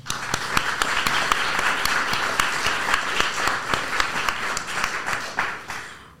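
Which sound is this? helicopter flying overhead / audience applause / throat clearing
audience applause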